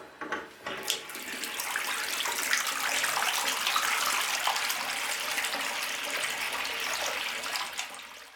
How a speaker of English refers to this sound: After a moment, she goes back inside, retreating to the bathroom, where she turns on the tap and lets it run to expressively drown out the sounds of torment coming from the next room.